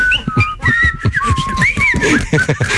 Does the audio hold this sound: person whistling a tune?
yes